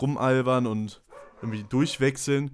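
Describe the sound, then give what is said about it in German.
A dog barks a few times in the background, short sharp yaps partly buried under a man's steady conversational speech. “Sorry, man hört wahrscheinlich meinen Hund gerade im Hintergrund.”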